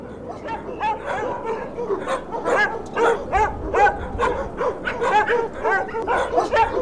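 A dog barks repeatedly in quick, uneven bursts, mixing sharp yips with a few whining notes, loud throughout with no pauses.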